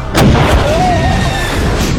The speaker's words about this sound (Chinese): 于是三人把空气炮从射击孔伸了出去，开始射击。但是小福却找错了位置，一炮打在了砖块上，结果轰的一声被气浪向后掀了出去。